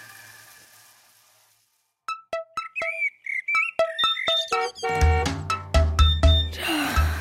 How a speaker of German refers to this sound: mein Wecker. Früher Morgen, blödes Aufstehen.